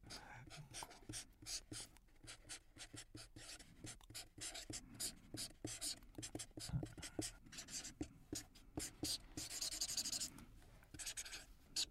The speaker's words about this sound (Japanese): こちらの色紙に、えー、5年後の夢を書いていただけるでしょうかはい